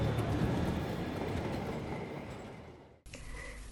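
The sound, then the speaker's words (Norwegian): A train rolls along the rails with a broad, steady rumble and rattle that gradually slows and fades, then a brief cut to a quieter rail ambience with a faint whine. “Naftatoget kommer om et øyeblikk inn på ca. spor 2. Avstigning muligens på venstre side.”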